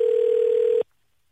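A steady, single-pitched electronic phone ringback tone hums loudly for under a second, then cuts off abruptly into silence.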